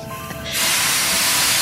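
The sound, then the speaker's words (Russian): A loud burst of steam hisses out from a locomotive, starting abruptly after a brief quiet moment and holding as a steady, broad rush of noise with no voices. “Маэстро, прошу вас, наш небесный поезд, я вижу, э, уже заготовлен. Давайте выпустим пар.”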